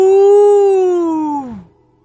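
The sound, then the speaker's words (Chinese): A person voicing the big bear in a children's story imitates a bear's roar with one long, loud, voiced "woo" that holds steady for over a second, then slides down in pitch and cuts off, leaving silence. “大熊也吼了起来。”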